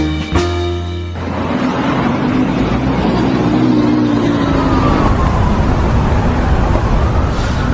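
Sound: traffic jam street noise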